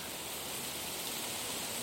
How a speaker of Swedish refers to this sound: Trädens rasslande i vinden.